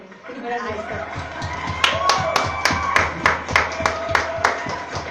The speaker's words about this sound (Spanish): Pero bueno, esta vez yo me paro y aplaudo. Se hace falta otra vez. apáyame con los aplausos.